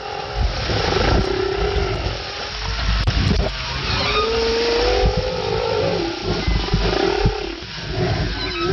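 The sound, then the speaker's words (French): Underwater recording of a humpback whale mother's low grunts and rumbles alongside her calf's shorter, higher calls, repeated over a steady hiss of sea noise with no talking. “Elle avec des sons graves, des sortes de grognements, et puis le petit avec des sons plus courts et plus aigus.”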